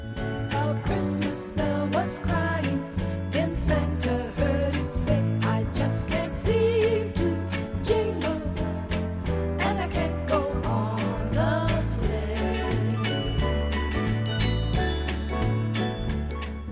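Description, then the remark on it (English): A festive Christmas pop song with bright jingling bells ringing on a steady beat over a bouncing bass line, played loud and full throughout, with no clear singing. “I'd like to nominate a song for a Christmas song that should have been a huge hit”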